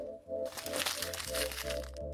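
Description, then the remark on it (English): Busy rustling and crinkling of a piece of paper being pulled out of a box for about two seconds, sharp crackly bursts over a steady low hum in the background. “This is just a piece of paper.”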